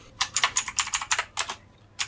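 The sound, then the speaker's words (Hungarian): Rapid, crisp keystrokes on a clicky mechanical keyboard, a bright burst of irregular clicks with a brief pause before a few more presses at the end. No voices. “Igen, és kattog, mint az állat.”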